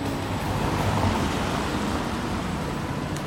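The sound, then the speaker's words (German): Steady street traffic noise at a tram stop in Würzburg, a continuous low rumble of passing cars and engines with a broad wash of road hiss, fairly loud and even throughout, no voices. “so, also ich bin jetzt hier in Würzburg an der Trambahnhaltestelle.”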